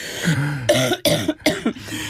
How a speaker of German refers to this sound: Ey, darfst mich nicht zum Lachen bringen. Entschuldigung, einmal husten.